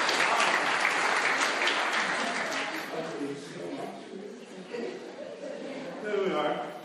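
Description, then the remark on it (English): A crowd bursts into sustained applause mixed with cheering voices after the question of who wrote Psalm 23 is answered, loud and dense at first, then thinning slightly before swelling again near the end. “Big cheer, big round of applause.”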